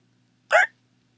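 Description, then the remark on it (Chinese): A single short hiccup, a sudden voiced gulp lasting a fraction of a second, stands alone against a faint low hum with silence on either side. “他又打嗝了。”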